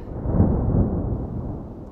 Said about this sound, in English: Thunder boomed in the distance.